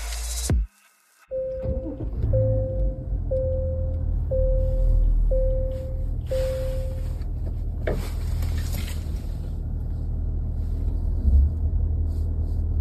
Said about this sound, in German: Man kann sagen, glaube ich so, da sind wir uns einig, der Motor läuft super seidig, passt mhm. mega gut so ja. vom ersten Eindruck her zu dem, zu dem GV80.